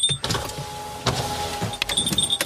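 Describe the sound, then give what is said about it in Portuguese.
Electric car windows whir open on a hot September day of over 30 degrees, a steady motor hum with a thin high whine, broken by a couple of sharp clunks, with engine rumble underneath and no talking. “tenho de abrir os vidros, meu, senão depois acabou é quente”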